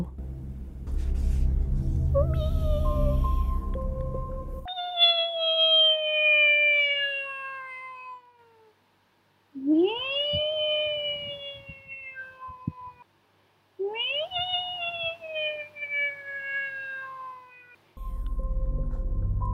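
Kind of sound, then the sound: animal, cat meowing softly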